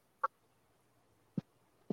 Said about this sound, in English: Not getting much. Um, just hearing some owls.